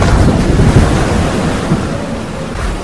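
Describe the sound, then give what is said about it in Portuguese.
A heavy, mountain-sized ocean wave crashes over a rowing boat and capsizes it, churning in a dense, roaring wash of surf, loud, with gusty wind buffeting throughout and no voices. “Havíamos remado bem uma légua e meia em direção à terra firme quando uma onda gigantesca do tamanho de uma montanha quebrou sobre nós, virando o barco.”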